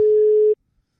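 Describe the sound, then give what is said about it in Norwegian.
A telephone ringing tone heard while placing a call: one steady, mid-pitched electronic beep holds for about half a second, then cuts off into silence. No one speaks. “Ja, vi ringer han og hører om ja, han er gira på det.”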